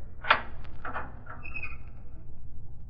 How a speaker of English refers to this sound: Unlock the door